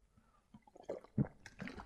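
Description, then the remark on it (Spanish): Someone swallows a pill with a drink of water from a bottle: soft, wet sloshing and gulping sounds in a few short bursts, quiet overall, with no talking. “Sí, o sea que ya nada más es pasarte el trago con agua y listo.”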